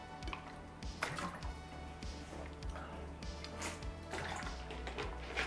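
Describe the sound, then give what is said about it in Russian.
Someone drinking water: a run of soft gulps and swallows with small liquid splashes and clicks, over a low steady hum, no talking. “Сейчас я выпью воды, потому что я забыл, что говорить.”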